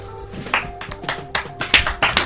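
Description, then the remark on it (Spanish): Restrained applause: a handful of sparse, uneven hand claps, soft sharp pops scattered over about two seconds, with a faint steady hum underneath and no voices. “Muy bien, muy bien, aplauso comedido.”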